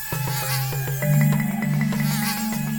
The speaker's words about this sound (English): As we pressed deeper into the swamp, Thousands of mosquitoes swarmed us in a cloud, biting our exposed skin.